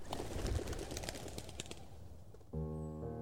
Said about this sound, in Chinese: 屋顶上，鸽子咕咕咕咕的低声叫着。我心里想。他们该不会强迫这些鸽子也用德国话唱歌吧？